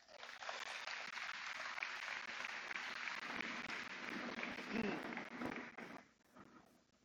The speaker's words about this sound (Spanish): Denle otro aplauso fuerte a sus mamás.